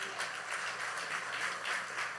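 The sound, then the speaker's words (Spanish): An audience in church applauds the Lord, many hands clapping together in a steady, dense patter that rises and falls slightly, moderately loud, with no voices over it. “Les ese aplauso al Señor.”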